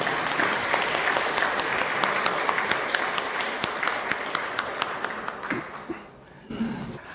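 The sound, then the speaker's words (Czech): A church audience applauds steadily to thank a church member for his service, dense overlapping hand claps forming a sustained patter that gradually thins and fades, with a few scattered claps and murmurs at the end. “tady už teta sestra naznačuje potlesk, tak to můžeme klidně.”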